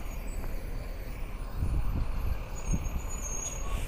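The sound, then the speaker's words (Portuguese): A heavy bus passes by, its deep engine drone swelling in the middle and holding steady, with faint high air-brake hissing near the end and no voices. “E tem ônibus passando por aqui.”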